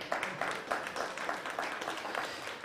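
A group claps steadily in applause, a dense wash of hand claps with a faint rhythmic pulse running throughout at a moderate, fairly even level, with no voices on top.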